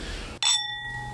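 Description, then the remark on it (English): A single bright clink of wine glasses touching in a toast, leaving a clear ringing tone that lingers and slowly fades, with no one talking. “Like like those wines where cheers by the way. Cheers.”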